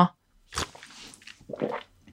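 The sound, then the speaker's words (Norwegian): Someone slurps a drink right at the microphone: a few short, wet, close-up bursts of sipping and mouth noise with brief pauses between them. “Jeg prøver å ikke slurpe midt i mikrofonen her nå.”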